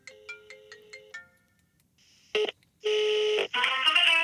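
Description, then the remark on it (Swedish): A telephone ringing tone on a call that goes to an answering machine: five quick electronic chirps in a steady rhythm, then a pause followed by louder, buzzy bursts of bright tonal sound as the line connects. No one speaks. “För det som händer är alltså att när man ringer till dig så eh, kommer man eh, fram till eh, en telefonsvarare som är lik någonting som ingen annan någonsin hört tror jag.”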